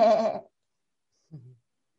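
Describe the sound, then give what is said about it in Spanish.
A person imitates a goat's bleat with a loud, wavering vocal call, followed after a pause by a shorter, lower second bleat-like sound, with no other talk. “Mira el monte con las cabras, que te miran y hacen”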